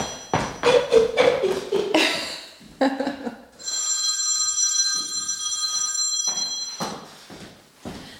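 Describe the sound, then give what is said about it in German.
A telephone bell rings loud: a burst of rapid metallic clattering strikes, then a sustained shrill ring that holds for about three seconds before cutting off. “Oh je, Entschuldigung wir müssen kurz unterbrechen. Das Telefon läutet.”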